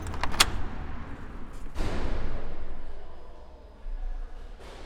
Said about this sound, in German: Einsteingebäude gebäude heißt heute das Haus an der alten Kantonsschule Aarau. Es ist im Neo-Renaissance-Stil gebaut. Ich mache die Tür auf und gehe innen.